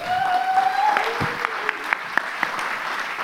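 An audience breaks into steady applause, a dense wash of clapping that holds at an even level, with a few sharper claps standing out and faint tonal sounds mixed in early on.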